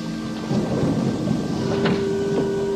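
thunderstorm

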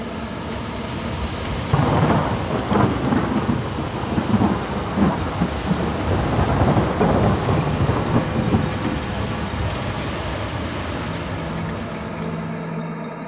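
thunderstorm with heavy rain

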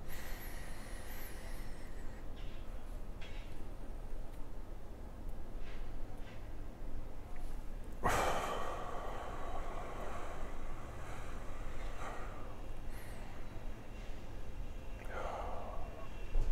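slow deep breathing

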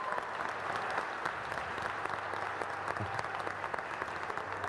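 audience applauding loudly

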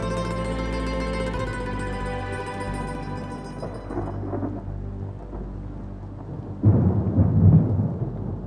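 thunder rumbling

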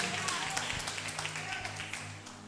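audience clapping

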